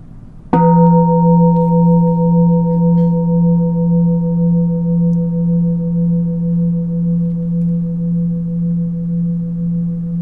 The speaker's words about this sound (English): Notice a sound as it arises, as it passes, can notice change also in any internal changes in the sound, the reverberation of the bell.